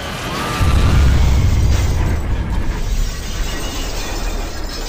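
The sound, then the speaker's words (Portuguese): A loud crashing explosion of a plane crashing onto an ice-covered mountaintop bursts in with a heavy low-end boom and shattering debris, then settles into a sustained rumbling roar that slowly fades over several seconds. “Você tá num avião e Deus o livre, esse avião sofre um acidente. Cai no topo de uma montanha cheia de gelo.”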